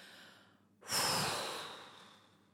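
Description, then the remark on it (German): A single forceful, whooshing exhale pushed out through open lips, starting abruptly and tapering off gradually over about a second and a half, fairly loud with no talking; the remaining air is released as the first step of a 4-7-8 breathing cycle. “Als erstes öffnest du deine Lippen und lass nun den Rest von deiner noch vorhandenen Luft mit einem Sound wie zum Beispiel Wusch raus.”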